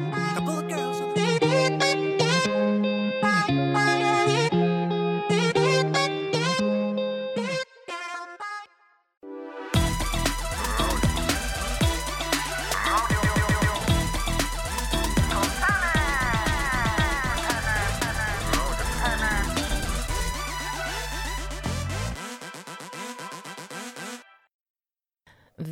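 A pop song plays loudly and continuously, a lighter melodic opening giving way after a brief dip to a fuller, driving band arrangement with singing, before cutting out near the end.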